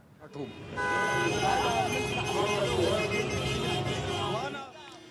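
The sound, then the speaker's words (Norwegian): Several car horns honk together in a sustained, overlapping din in Khartoum, Sudan, mixed with a crowd's cheering and shouting, celebrating the recapture of an oil field occupied by South Sudanese soldiers, filling the scene loudly for several seconds before fading. “Tre måneder etterpå jubel og tuting i Khartoum.”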